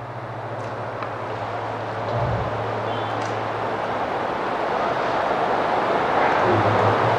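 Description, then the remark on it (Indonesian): Heavy rain pours down during an Islamic study gathering in a steady, dense hiss that fills the whole clip, rising slightly in loudness, with a low constant hum underneath and no voices. “Pas kita kajian hujan lebat turun.”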